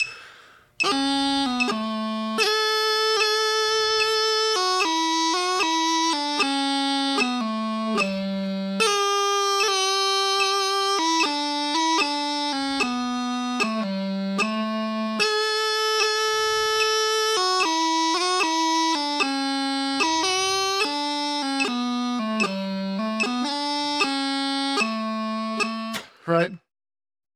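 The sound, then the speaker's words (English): A bright, reedy tune plays steadily for about 26 seconds, its melody notes ornamented by quick G grace notes added on the downbeats and offbeats. No voices, just continuous, loud, buzzy tone. “We've got the G Grace notes chirping away.”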